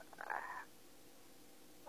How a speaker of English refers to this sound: God, I apologize for the dog in the background. There's two of them and a two-year-old, so you'll hear some background noise probably.